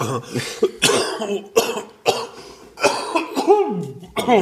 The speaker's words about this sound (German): Ich muss hier gerade mal husten.